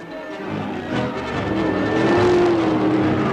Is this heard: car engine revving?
yes